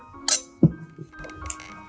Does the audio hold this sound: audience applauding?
no